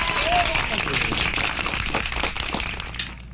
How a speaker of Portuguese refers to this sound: É meu papel de Silvio Santos aqui, só eu que puxo as palmas.